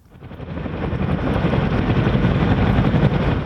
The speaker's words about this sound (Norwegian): Et amerikansk militært helikopter lander på en slette i Afghanistan soldater som løper gjennom en sky av støv for å klyve om bord.